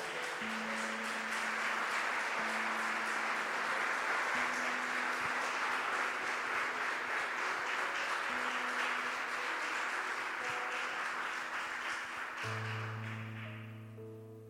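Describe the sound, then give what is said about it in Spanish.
Sustained applause from a large crowd, given for the preached word at a worship service, a dense steady wash of clapping for about twelve seconds, with low sustained music tones underneath that swell near the end as the clapping fades. “Vamos a darle fuerte este aplauso a esta palabra.”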